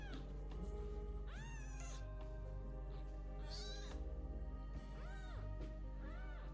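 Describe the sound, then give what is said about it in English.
A pet cat, one of two house cats named Socks and Smokey, meows repeatedly: about four drawn-out, rising-and-falling cries spaced a second or two apart, fairly quiet, over a steady low background hum with no talking. “Then again, both Socks and Smokey are over there, so maybe I need to go feed the cats.”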